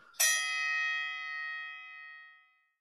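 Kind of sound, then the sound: sound effect, bell ringing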